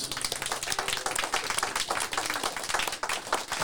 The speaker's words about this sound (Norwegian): Der er vi ferdige, og en stor applaus.